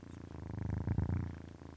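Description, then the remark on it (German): A cat purrs steadily on a woman's lap, a low rumbling vibration with a fast, even pulse that swells slightly and continues without pause. No voices are heard. “Die Katze schnurrt gemütlich auf ihrem Schoß”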